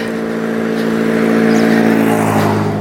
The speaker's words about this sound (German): Ui, was mit dem hat der kaputten Auspuff? Drrrt.